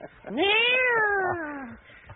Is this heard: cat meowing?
yes